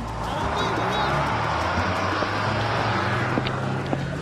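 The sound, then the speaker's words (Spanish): A bus engine rumbles low and steady, pulling in and moving off amid busy street noise, with faint voices murmuring in the background. “Ahí viene el bus, ahí viene el bus.”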